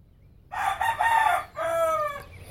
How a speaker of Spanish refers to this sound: Y cuando yo escucho cantar las aves, los gallos, quisiera cantar también yo con ellos, pero no sé, no sé qué, cantar.